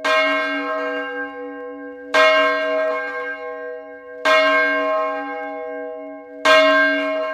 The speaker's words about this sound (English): the bells outside of the White House, certain bells that are still in church towers that were actually ringing in his day, you know, that were created by the Paul Revere family.